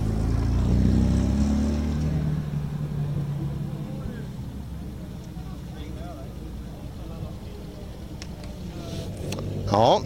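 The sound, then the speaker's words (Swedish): Rally cars roll into the finish of a long rally in Sweden with over 180 entrants, with a steady, heavy engine rumble that is loudest at the start and occasional revving. A voice talks over the droning motors. “Det är en stridström av bilar som rullar in.”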